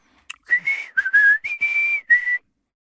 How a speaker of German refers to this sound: Annie und Mo wandern den breiten Waldweg entlang. Mo pfeift ein Liedchen und Annie singt dazu Wir wandern ja so gerne.